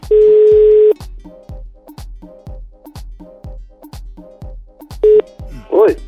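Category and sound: signal or alarm, telephone dialing a call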